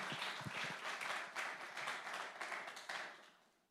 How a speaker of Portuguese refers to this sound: Aplauda o nome de Jesus mais uma vez e pode sentar.